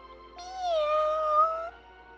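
A single drawn-out cat meow, loud, lasting over a second with a slight rise and a steady whining tone, heard alone with no talking.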